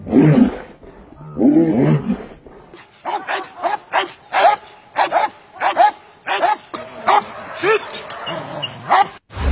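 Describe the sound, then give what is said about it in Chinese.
Military dogs bark in a rapid, loud string of about a dozen sharp, harsh barks, following a brief stretch of voices at the start, at the military dog training ground of a Zhengzhou Joint Logistics Support Center base in Shaanxi, China, at the foot of Mount Hua. “人质、劫匪、引导员，军迷沉浸式直面军犬的技战实力。”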